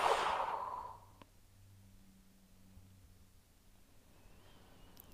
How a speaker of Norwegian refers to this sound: Hold pusten. Og pust ut.